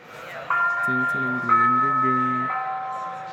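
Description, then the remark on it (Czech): A short bright bell jingle with sustained chiming tones entering in steps, over a lower melodic pattern, fairly loud, playing alone for a few seconds; a ringing jingle introducing a Brno local news segment. “Tím pádem uh, půjdeme do sekce brněnských aktualit a dáme si zvonění za Tři, dva, jedna.”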